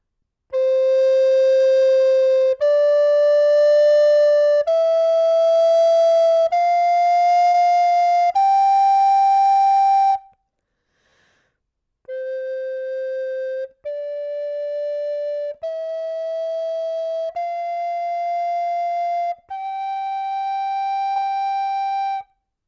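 A flute plays a rising five-note scale of steady, sustained tones in the main fingering, then after a short pause plays the same five ascending notes in the quieter piano fingering, with a slightly softer, thinner tone.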